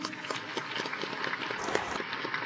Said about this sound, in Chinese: 我们在这边给我们公司公司的工作人员一个掌声。